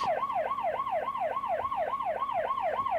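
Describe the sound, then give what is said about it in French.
An ambulance siren wails as the ambulance arrives with the police, in fast, regular rising-and-falling sweeps, about three per second, loud and steady throughout with no voices over it. “La police arrive avec une ambulance.”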